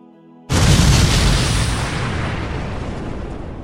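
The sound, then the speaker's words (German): A single loud, deep explosion bursts in after a brief quiet hum, its broad roar lingering and slowly fading over the next few seconds as a rumbling tail. “Und wenige Momente später hört ihr einen lauten, lauten Knall.”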